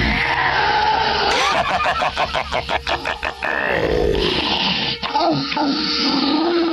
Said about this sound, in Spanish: Su respuesta fue de nuevo aquel quejido extraño y sobrenatural que le hizo enchinarse de la piel.